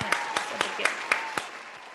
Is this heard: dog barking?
no